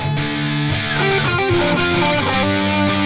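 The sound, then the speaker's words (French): A distorted electric guitar plays a short run of sustained notes through an amplifier, loud, with a gritty, saturated tone and no voices. “Alors moi j'aime bien le son comme ça. Il y a pas mal de salles, mais je trouve quand même que ça a du caractère”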